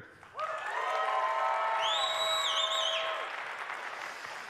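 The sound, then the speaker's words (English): A live crowd bursts into loud applause and sustained whooping cheers to vote that dark meat of the bird is better than white meat. A few voices hold a long cheer above the clapping, then it all fades slightly toward the end. “If you think dark meat is better, let's hear it.”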